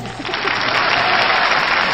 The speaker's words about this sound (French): Très ah, bien, là, vous devez applaudir déjà, non